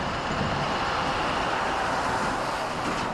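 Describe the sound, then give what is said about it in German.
A loud, steady roar of heavy road traffic as a truck rushes past on a motorway, with a broad rushing hiss and no voices. “Das ist ungefähr so laut, als wenn man an der Autobahn steht und ein Lastwagen vorbeirauscht.”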